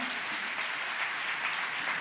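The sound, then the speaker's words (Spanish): A church audience claps steadily and continuously during a sermon, a dense wash of many hands at moderate loudness, with no voices standing out. “Si ese aplauso es para el Señor.”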